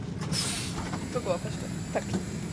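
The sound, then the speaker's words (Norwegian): A short, sharp pneumatic hiss bursts out as a train door opens at the station in Hamar, Norway, settling into a steady low rumble of the carriage with faint murmuring voices in the background. “Og da døra går opp, spurter hun av gårde og kaster seg inn i armene hans.”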